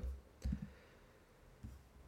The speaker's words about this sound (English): And I, you will hear me typing right now. That's because I need to find the words.